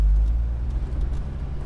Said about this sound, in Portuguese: Você liga o carro e sai do estacionamento.